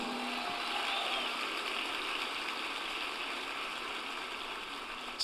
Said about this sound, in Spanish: Dale un fuerte aplauso.